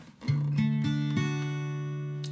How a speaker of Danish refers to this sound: Jeg kan også øh, illustrere det her på gitaren, at vi har en dur, der lyder sådan her.